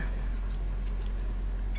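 Scissors snip through fish, cutting it into smaller pieces, in a quick run of three or four short, crisp cuts, moderately loud, with a low steady hum underneath and no talking.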